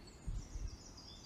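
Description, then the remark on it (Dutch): Faint birdsong drifts through a quiet, beautiful nature area, with thin high-pitched calls that waver across the whole moment, and a few soft low thumps early on. “Je bent omringd een prachtig mooi natuurgebied. En je hoort de vogels.”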